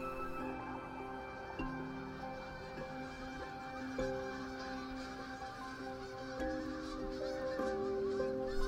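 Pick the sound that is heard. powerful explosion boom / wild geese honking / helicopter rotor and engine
wild geese honking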